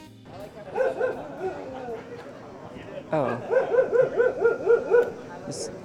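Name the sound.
dogs barking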